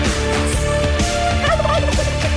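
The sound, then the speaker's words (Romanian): A person loudly imitates a turkey's gobble, a rapid, warbling, throaty burble repeated in quick pulses over a couple of seconds, with no other talking. “E cât de cât impecabil ce zici care poate imita un curcan este ursul din județul Harghita.”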